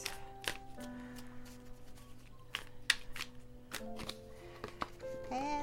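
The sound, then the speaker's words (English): Tarot cards being shuffled to pick three cards, a run of quick, crisp papery slaps and flicks at an uneven pace, with a soft steady musical hum lingering underneath. “And shuffling, oh, that came out fast.”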